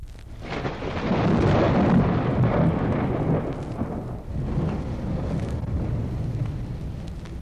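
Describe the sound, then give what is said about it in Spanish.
A deep, rolling rumble of thunder swells quickly and keeps growling steadily for several seconds, loud and heavy in the low end, with no voices present. “Cinco años tardó el hielo en derretirse alrededor de él hasta que todo se deshizo, y el elefante cayó rodando a la orilla con ruido de trueno.”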